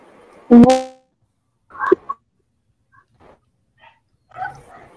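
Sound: dog barking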